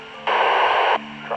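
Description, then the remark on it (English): A radio transmission breaks up as a loud burst of hissing static swamps it for most of a second, drops back to a faint hum, then crackles up again briefly at the end. “Try again, you're cutting out.”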